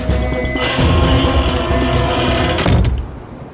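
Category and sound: household object, door slamming shut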